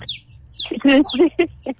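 bird, chicks peeping

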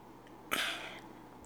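food or drink, sipping hot tea

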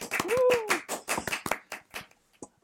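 crowd, hand clapping

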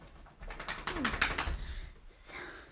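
animal, dog making noise

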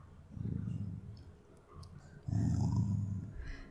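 animal, dog growling

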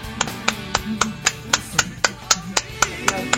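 crowd, clapping

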